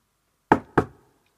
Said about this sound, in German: aber es ist nicht lang hergegangen, da hat schon die Tür wieder mal geklopft.